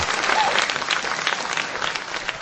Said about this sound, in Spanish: Y tenemos aplausos. Ay, aplausos, gracias, gracias, que me encantan. Bravo.